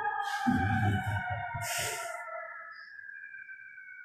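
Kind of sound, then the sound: vehicle, emergency vehicle siren passing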